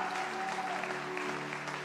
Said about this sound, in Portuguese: Se você crê nisso, dê um brado ao Senhor e aplaudo aqui.